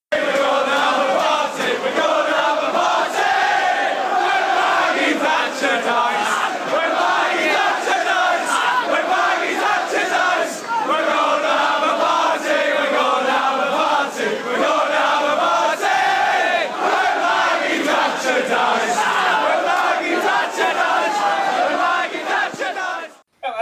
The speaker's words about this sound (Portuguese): a gente escutou aí a música da, que a torcida do Liverpool cantava